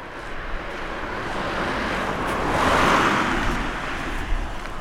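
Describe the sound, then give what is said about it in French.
A second car passes along a road beside a hillside near Felletin in Limousin, France, its hiss rising gradually to a peak around the middle and then fading away over steady outdoor rushing noise. “Ah, une deuxième voiture.”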